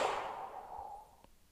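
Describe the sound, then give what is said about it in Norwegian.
A single slow, airy exhale during a guided breathing exercise, starting fairly strong and softly fading away over about a second, with a tiny click just after it ends. “Og pust ut. Og pust ut.”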